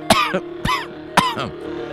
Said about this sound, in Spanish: Eso no lo edites, que eso da igual, que, tengo tos de la alergia.